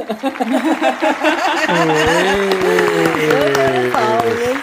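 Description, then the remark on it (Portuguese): A few scattered claps ring out under sustained, wavering vocal sounds, like voices cheering or hooting along in a loose, brief burst of applause. “Eu quero palmas.”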